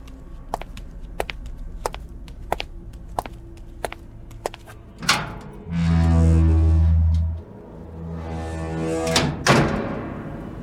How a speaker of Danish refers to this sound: De går sammen over til fryserummet og åbner det op.